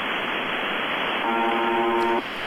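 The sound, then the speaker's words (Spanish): Dense shortwave radio static hisses throughout from the radio station UVBB76, and midway a harsh, steady buzzer tone cuts in for about a second before stopping abruptly, leaving only the crackling noise. “Lo que estás escuchando es un fragmento de cómo suena esta radio.”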